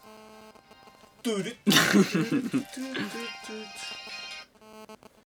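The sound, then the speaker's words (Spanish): A mobile phone ringtone plays a steady, tonal melody from start to finish, while someone coughs and talks loudly over it in the middle before the ringing continues alone. “Tiene que sonar el móvil de guau en todos los pocas.”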